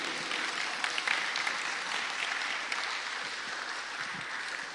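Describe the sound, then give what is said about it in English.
A crowd applauds steadily for several seconds, a dense, even wash of many hands clapping at a fairly consistent loudness, with no one speaking over it. “Should we give these guys a round of applause?”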